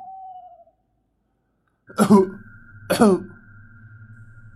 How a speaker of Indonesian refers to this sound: Tiba-tiba aku mendengar suara orang batuk dari kamar Simbah Kakung.